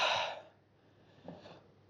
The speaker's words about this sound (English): And I'm starting to get aware of my breathing. And I'm going to breathe through my mouth